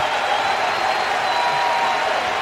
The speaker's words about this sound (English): Their entire team is out on the edge of the grass, giving Zimmerman an ovation. He's saluting the crowd as he's being taken out of the game. He's patting his chest, looking to all corners of Nationals Park.